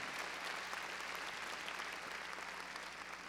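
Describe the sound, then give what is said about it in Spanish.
A church audience applauds loudly and steadily for the Lord after a prayer, a dense wash of many hands clapping together throughout, with no talking over it. “A ver, démosle palmas fuertes ahí a nuestro Señor.”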